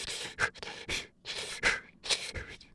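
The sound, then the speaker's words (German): A voice imitates rapid, shallow panting, demonstrating how patients with severely overinflated lungs breathe: about seven quick breathy puffs in under three seconds, fairly loud, with no speech. “Damit diese Patienten überhaupt noch Sauerstoff in die Lunge bekommen, müssen sie sehr viele kleine Atemzüge machen. Sie atmen also eher so.”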